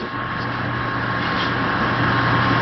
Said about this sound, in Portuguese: Olha o caminhão de novo. Ei, barulho.